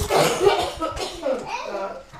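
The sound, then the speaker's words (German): A few rough coughs burst out in quick succession, mixed with young children's voices and some background chatter, in a daycare centre in Allendorf, Giessen district, Germany. “Husten. Das ist derzeit die alltägliche Geräuschkulisse in der Kita Allendorf im Landkreis Gießen.”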